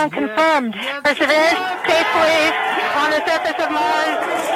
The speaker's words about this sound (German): Jubel ihrer Kollegen im kalifornischen NASA-Zentrum.